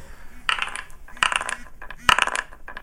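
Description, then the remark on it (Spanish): A small die clatters across a hard surface in three quick bursts of bright tapping, each flurry of clicks tumbling and then settling, with no voices; the roll comes up six. “Este, pues vamos a ver con el dadito.”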